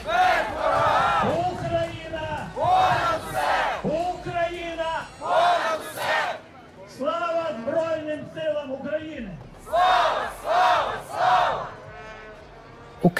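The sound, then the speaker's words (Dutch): A small protest crowd of Ukrainian refugees chants together outdoors on the Operaplein in central Antwerp, Belgium, in rain and very strong wind, loud shouted phrases repeating in a steady rhythm with short pauses between bursts of many voices. “En het is een klein protest van de Oekraïnse vluchtelingen in ons land.”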